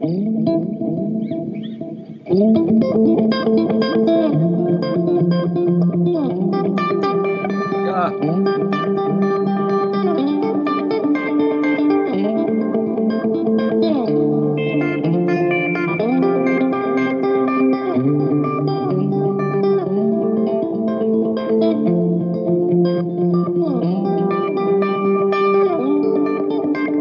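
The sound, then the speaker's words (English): A sustained electric guitar part plays melodic lines soaked in spacious ambient reverb, notes blooming and overlapping at a steady, fairly loud level after a brief spoken word at the start. “But uh, th- this was one of the parts. Uh, let's have a little bit ambient re- reverb.”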